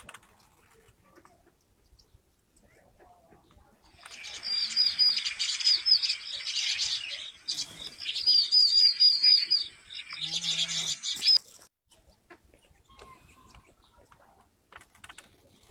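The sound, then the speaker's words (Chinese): A flock of parrotbills flying past as a group calls in a dense burst of high, rapid twittering chirps, with repeated quick trilled notes, lasting about seven seconds before fading to quiet. “哎，今天它是中头鸦雀，也有一种特别好玩的声音。”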